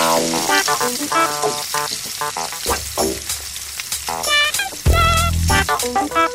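Food sizzles and crackles steadily in a hot pan, with occasional clinks and scrapes of a utensil stirring through the frying.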